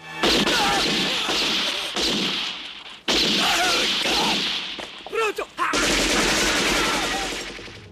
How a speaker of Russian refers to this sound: Нападавшие в упор расстреливают из автоматов в водителя Мора, охранника и трех агентов службы безопасности.